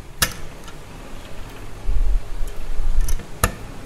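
A cell culture incubator door at the Instituto de Medicina Molecular in Lisbon, where embryonic human heart cells are grown, unlatches with a sharp click, followed by a low mechanical rumble and a few faint taps before a second crisp latch click near the end; fairly quiet, no voices.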